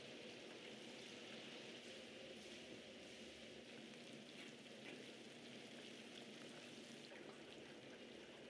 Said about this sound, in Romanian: Îl prăjește ceapa aia.